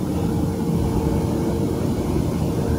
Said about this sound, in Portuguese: Todos esses pontinhos daqui sugam o ar. Esses pontos vão sugando o ar. O material fica fixo durante o processo de corte. Aí ele fica fixo aqui, ó, tá puxando o material, ó.